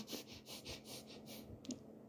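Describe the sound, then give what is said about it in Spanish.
A person imitates the noisy breathing of someone who is angry: a rapid run of about seven forceful, noisy breaths in a steady rhythm, fairly clear, with no talking. “No sé si, si conoces, pero viste que cuando estamos enojados respiramos como, como haciendo ruido, ¿no?”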